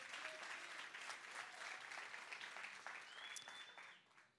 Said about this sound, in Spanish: Un aplauso, por favor, para Sophie.